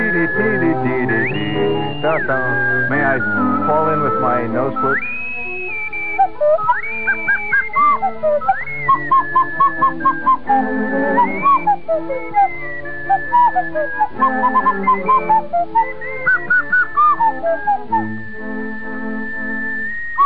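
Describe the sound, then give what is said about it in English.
An elderly woman plays a slide whistle along with Mozart from a record player, a jaunty melody swooping up and down between notes and tooting short repeated blips, over a busy musical accompaniment throughout. “Used to sit in front of her, her Sears Roebuck record player, playing Mozart, playing a slide whistle.”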